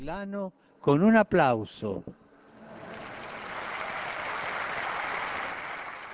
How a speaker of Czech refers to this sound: Chválme pána za tuto jeho věrnou učednici a její přímluvě svěřme naše prozby za venezuelský lid – a pozdravme potleskem novou blahoslavenou i venezuelský lid.